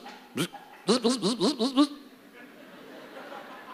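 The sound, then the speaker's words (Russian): A voice imitates an electric bilge pump, a boat pump that starts automatically when water comes into the boat: one short buzz, then a quick run of six rhythmic buzzing pulses, fairly loud, before trailing into quiet background noise. “It's called bilge pump.”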